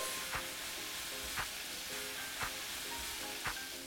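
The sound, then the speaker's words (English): Potatoes, carrots and onions sautéing for a few minutes in a pan with ginger and lemongrass, a steady, hissing sizzle broken by four evenly spaced scraping stirs. No one speaks. “Now that we've extracted all those flavors, we'll add potatoes, carrots, and onions. And we'll just saute that for a few minutes.”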